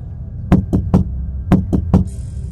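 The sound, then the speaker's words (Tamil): Two quick sets of three sharp knocks on a restroom door, evenly spaced with a short pause between groups, fairly loud over a low steady hum. “திரும்பவும் அவங்க கதவை தட்டிகிட்டே இருந்ததுனால இந்துஜா கதவை திறந்து வெளியே வந்து பார்க்குறாங்க”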